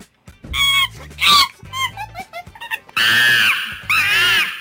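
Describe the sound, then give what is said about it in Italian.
Loud, high-pitched monkey screeches come in bursts. Two sharp shrieks are followed by a quick run of choppy chattering calls, then two long, harsh wailing screams. No one speaks. “che scimmie abbiamo questa sera?”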